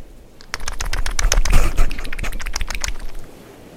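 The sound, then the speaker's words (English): A marlin flops on a boat deck, a fast, irregular flurry of sharp slaps and thumps that keeps going for several seconds without a pause. “Here is the sound of the noble marlin on the deck of a boat.”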